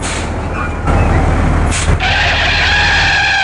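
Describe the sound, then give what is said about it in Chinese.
A bus braking suddenly: steady heavy engine rumble, then a short sharp burst of air-brake hiss followed by a sustained high-pitched brake squeal as the vehicle stops. No voices. “可是呢，很不小心在公车上一个刹车，”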